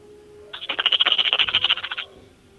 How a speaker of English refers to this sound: What, what you shaking dice?